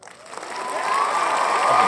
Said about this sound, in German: Äh, erstmal äh, Applaus, Applaus, Applaus. Ja. Und äh, sehr schön gesungen.